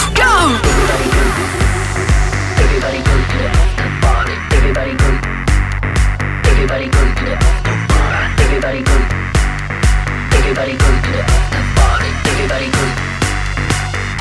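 A loud, punchy dance track with a steady four-on-the-floor kick and dense synths driving forward, with a short vocal hook repeating over the beat throughout.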